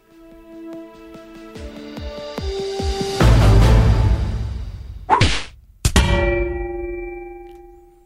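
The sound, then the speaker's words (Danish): A short produced segment intro jingle: a quick run of ringing chime notes builds up, then a loud crash and sweeping whooshes lead into a final sustained bright chord, with no voices. “Det er den faste intro til vores øh, røde ører”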